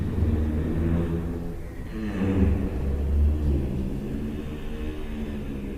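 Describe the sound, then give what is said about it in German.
A giraffe's low, droning hum, recorded at night in a European zoo, holds steady for several seconds, rich with buzzy overtones and slight swells in loudness, with no voices and a faint background hiss. “Und die überraschende Entdeckung kam dann bei den Nachtaufnahmen, als wir dieses nächtliche Summen der Giraffen entdeckt haben.”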